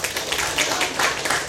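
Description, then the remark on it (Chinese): An audience claps together in a steady, dense burst of applause for a senior female fellow member (shijie), many hands striking quickly and evenly at a fairly loud level, with no one talking over it. “哇，太棒了，来，给我们师姐一个掌声。”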